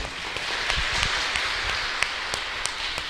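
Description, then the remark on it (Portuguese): A round of applause at a church Mass for the winner of a small gift drawn in a raffle: a crowd's dense, steady clapping for about three seconds, with a few sharper individual claps popping out of the wash, and no voices. “Aí o presentinho, uma sal de palmas.”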